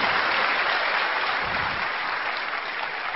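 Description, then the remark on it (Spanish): Steady audience applause at an event for business leaders fills the whole stretch, a dense wash of many hands clapping at once, loud and sustained without pause or voices rising above it. “Así que un aplauso por favor a todos sus liderazgos, sus esmeraldas, sus platinos, todos por favor.”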